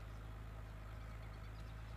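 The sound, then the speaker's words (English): A car engine idles steadily with a low, continuous rumble and a faint pulsing throb, holding the same level throughout with no voices. “Say, this is quite a car. It's pretty fast.”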